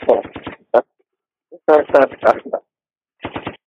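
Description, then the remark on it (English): A voice imitates gunfire with quick, punchy bursts: a rapid string of shots, a single pop, then more volleys, all fairly loud with short silences between. “And we gonna give a gunshot to that too.”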